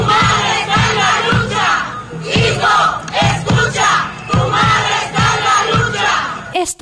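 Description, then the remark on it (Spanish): A large crowd of relatives of disappeared people in Mexico chants protest slogans in unison, loud, with a steady rhythmic cadence of repeated shouted phrases and emphatic beats, the voices blending into one forceful collective roar. “y otras consignas se escucha gritar a lo largo del país a los familiares de las casi 100.000 personas que hay desaparecidas en México.”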